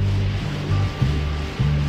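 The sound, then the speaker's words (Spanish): Sea waves wash steadily onto a shore in a continuous broad rush, with a low, sustained musical tone humming underneath and a couple of soft swells in the surge. “El mar, el mar. El mar.”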